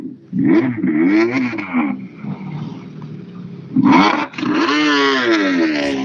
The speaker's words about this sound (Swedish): Den låter fint det. Citroën. Ja, det, ja Citroën är bra pip i röret där.